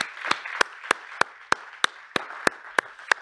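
A church audience in the sanctuary applauds the standing mothers and grandmothers, a soft wash of clapping with one sharp, steady clap standing out about three times a second, evenly spaced throughout. No one speaks.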